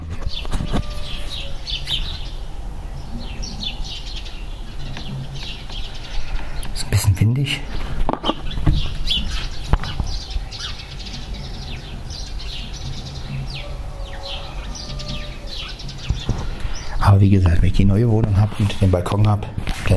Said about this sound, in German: Na, ihr hört die ganzen Vögel. Ich kann ja mal zum Fenster gehen. Und mal ein bisschen raushalten. Dann hört ihr vielleicht mal ein paar Vögelchen. Das ist also der Morgen.